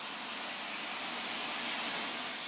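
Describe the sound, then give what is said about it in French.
A fighter jet engine roars steadily and loudly, a dense, unbroken hiss-heavy rumble with no pauses or voices; one of two fighter jets armed with a loaded cannon and missiles, on an air-policing mission. “les pilotes doivent décoller en moins de 20 minutes.”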